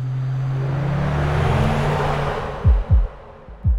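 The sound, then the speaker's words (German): A synthetic electric-car sound file from a sound database: a steady low tonal hum layered with broad airy hiss, swelling slightly, then three short deep thumps near the end. No voices. “Das ist auf jeden Fall heute eins unserer besten Soundfiles, weil das gleichermaßen tonal und verrauscht sehr technisch klingt und uns sehr gut zu Pass kommt, zufälligerweise.”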